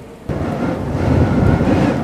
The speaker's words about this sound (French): Tout à coup, il a commencé à pleuvoir.